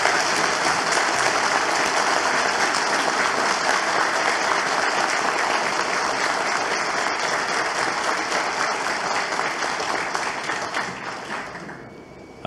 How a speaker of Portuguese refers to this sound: Muito obrigado. Uma salva de palmas, por gentileza.